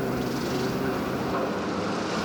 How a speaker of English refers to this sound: converting Wood Mill into Monarch on the Merrimack recently found these old recordings of mill workers and weaving machines. Uh, the machine would start up, you know, it would start, and, and it might have like a humming noise.